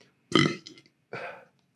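Two burps in quick succession: a loud, deep, gurgling first one with a short sputtering tail, then a slightly softer second one after a brief pause, with no talking.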